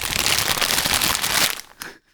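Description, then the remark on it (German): A chip bag crinkles loudly and continuously for about a second and a half, a dense crackly rustle, then a short final crinkle before it goes quiet. “ah ja, bei, bei, bei mir war es eine Chips-Tüte.”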